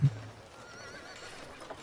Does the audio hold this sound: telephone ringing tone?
no